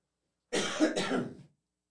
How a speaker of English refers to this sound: Excuse me there. and a little cough.